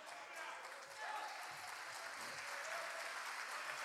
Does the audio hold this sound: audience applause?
yes